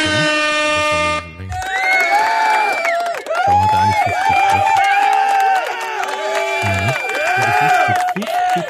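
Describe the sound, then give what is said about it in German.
A short air-horn blast gives way to a loud applause sound effect, a crowd cheering, whooping and whistling continuously for several seconds without letting up. “Das Applaus ist viel zu lang bei dem Bettam.”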